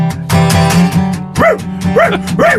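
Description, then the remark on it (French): A robot dog barks three times in a steady rhythm, each bark a short rising-and-falling yelp, after a busy burst of buzzing noise, all over a constant low electronic hum. “Robot chien, quelle est cette logorée? Robot chien essaie d'articuler.”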